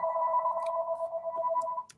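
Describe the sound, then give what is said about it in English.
An unplugged landline telephone rings with a steady electronic two-tone warble that holds for about two seconds, clear, with a few faint clicks in the background before it cuts off. “And now it's ringing, and I don't know how that happens. You unplug the phone, it rings.”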